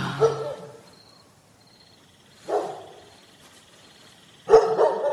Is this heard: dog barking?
yes